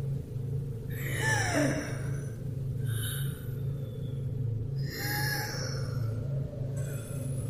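Slow, labored breathing with a raspy, wheezy edge, like someone who can barely breathe, coming from the basement door far away, each breath every couple of seconds over a steady low rumble. No one speaks.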